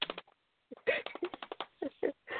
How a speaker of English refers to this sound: hear those fingers on that keyboard.